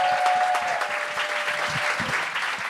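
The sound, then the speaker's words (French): A crowd applauds steadily as the first performer of the show is welcomed until she takes the microphone, a dense wash of clapping that holds at an even, fairly loud level throughout, with a faint high tone running briefly underneath. “Euh, il y a une des règles qu'on a rajoutées maintenant, c'est que vous devez applaudir jusqu'à temps que la personne prenne le micro en main.”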